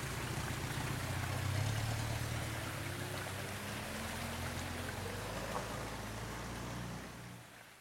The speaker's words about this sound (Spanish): Tras la marcha del encargado, siguió sin amainar la lluvia